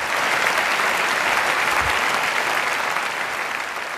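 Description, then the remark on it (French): A large audience in a hall claps loudly and continuously for Tom Cruise after his answer about celebrating movies, a dense, steady roar of applause that holds its level throughout with no voices standing out. “Et euh, il est applaudi à tout rompre euh, par la salle après avoir dit ça.”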